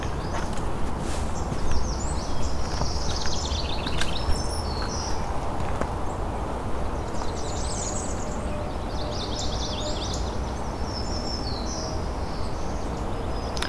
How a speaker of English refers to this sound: northern cardinal. A couple males arguing.